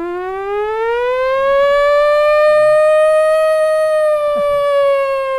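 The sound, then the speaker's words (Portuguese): A voice imitates an air-raid war siren: one long, loud wail that slowly rises in pitch and holds steady for about five seconds, with a brief knock near the end. “Sirene da, aquela sirene de guerra.”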